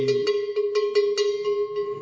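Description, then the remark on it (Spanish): A metal livestock bell of a kind called a picote is shaken steadily by hand, held in the right position to make it sound, clanking in a quick, irregular rhythm of about nine strikes with a sustained ringing tone between them, loud. “para que suene hay que si lo pone aquí nunca suena, tiene que poner así. Esa es la forma de sonar.”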